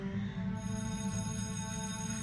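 A bell rings steadily and insistently for the whole stretch, its bright metallic tone holding at an even, fairly loud level with a dense, rattling undertone and no voices.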